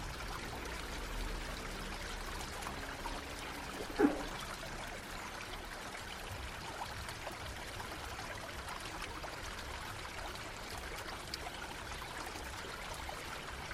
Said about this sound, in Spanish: ¿Cómo es la corriente del río? El agua fluye tranquilamente o baja rápido y con fuerza.